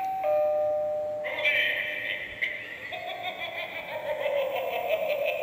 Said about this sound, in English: Uh, and it is a battery-powered prop doorbell. Check it out. It is uh, animated and it is visual and it is loud. So here we go. I'm going to push this to ring.